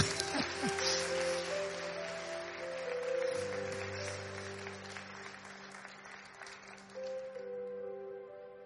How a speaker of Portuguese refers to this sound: Pode aplaudir o senhor porque é, ele é bom.